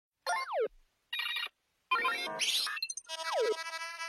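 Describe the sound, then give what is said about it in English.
A series of bright electronic startup tones at the beginning of a song: chirpy bursts with descending sweeps, short pauses between them, then a denser layered chime sequence swelling near the end. Loud, no voices. “It sounds like a a, a bunch of technology mm-hmm. sounds, like something's like initializing and like starting up.”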